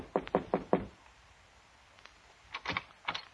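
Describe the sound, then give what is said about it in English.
Four quick, firm knocks on the door of Condano's office, a pause of about two seconds, then another short round of knocking, clear with no voices. “A sad old biddy with a mop told me Condano was in his office, so I knocked on the door.”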